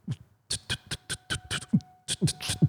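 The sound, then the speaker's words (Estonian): A voice imitates loud, pounding club hardcore music on a dance floor, a fast run of punchy, rhythmic thumps and clicking beats, with a brief pause midway before the beat picks up again. “ta ähm, läheb, ta läheb tantsuplatsi peale, tuleb kõva muusika, sihuke.”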